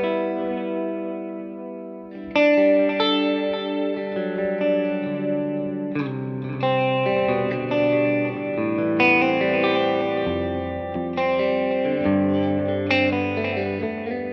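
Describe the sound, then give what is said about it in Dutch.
A sustained, chord-playing pad runs through the D-tape version of a delay, with adjustable modulation, giving a warm, gently wavering tape-style sound, echoes trailing softly behind each chord change every few seconds at a steady, full level with no voices. “Ik gebruik heel veel die, die, die, eh, die D-tape Oh. eh, versie. Dus die klinkt iets, iets warmer. Ja. En die zweeft ook een beetje.”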